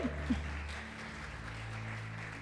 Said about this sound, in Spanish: Un aplauso.